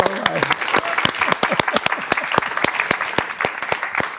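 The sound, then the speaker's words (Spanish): A burst of applause from a small group during an interview, with many sharp, irregular claps sustained steadily at moderate loudness for a few seconds, alone without any talking. “Un aplauso para eso”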